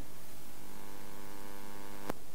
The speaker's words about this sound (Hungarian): Ó, most begerjedt. Ez a, ez a mit számít, majd lesz valahogy éreztétek, elkezdett gerjedni.